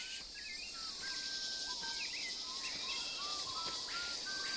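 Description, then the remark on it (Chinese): Birds sing in short, high whistled phrases and chirps over a steady, high insect drone, with no voices present throughout; background sounds in the otherwise empty opening of a song. “它是一些就是脚步声跟虫鸣鸟叫嘛。”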